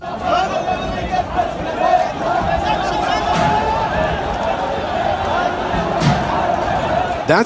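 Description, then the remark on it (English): Thousands of people roar and shout continuously as they overrun the American embassy in Iraq on New Year's Eve day, a dense, chaotic wall of voices with scattered bangs and thuds rising through the uproar. “the sound of thousands of people overrunning the American embassy in Iraq on New Year's Eve day.”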